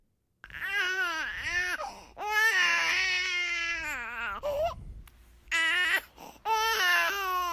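A two-month-old baby cries loudly in several long, wailing bursts with brief gasping pauses between them, the cries rising and falling in pitch.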